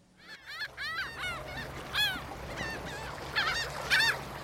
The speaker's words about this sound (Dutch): En vanuit die turkooizen zee het wreed gekrijs van de meeuwen.